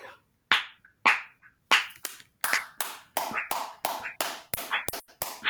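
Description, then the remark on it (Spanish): Hand claps, about a dozen sharp and fairly loud, starting slowly and picking up speed into a steady quick rhythm, with no talking over them. “Eso que se escucha son aplausos de fondo.”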